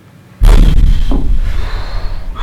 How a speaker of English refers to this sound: This dull explosion from in the tree line, and you see then two of the trees that were in that closest radius do split and break.